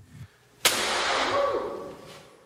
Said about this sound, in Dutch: Ja, we gaan eerst even luisteren hoe dat klinkt. Een wetenschapper die met een hamer of een bijl, wat was het, op zo'n zo'n namaakschedel eh, slaat.